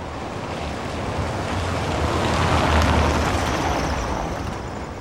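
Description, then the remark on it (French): Wind rushes steadily across an open square paved with small cobblestones, near Place Sainte-Catherine, a broad airy roar with a low rumble underneath, swelling slightly midway before easing off. No one speaks. “Il n'y a pas trop de maisons dans les alentours parce qu'il y a assez bien de vent.”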